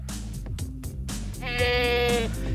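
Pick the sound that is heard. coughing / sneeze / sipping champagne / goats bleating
goats bleating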